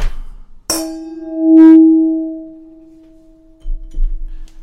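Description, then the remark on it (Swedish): Two wine glasses clink together in a toast in a single bright chime, then ring on in a clear, sustained tone that slowly fades, followed by a soft rustle. “Vi, vi, vi kör skål ändå.”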